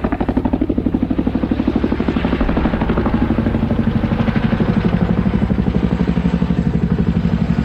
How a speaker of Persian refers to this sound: صبح با صدای هلیکوپتر بیدار شدیم